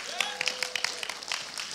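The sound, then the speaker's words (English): A crowd claps in a dense, steady patter of sharp hand slaps, with cheering voices and a few higher whoops mixed in throughout. “Give him a clap.”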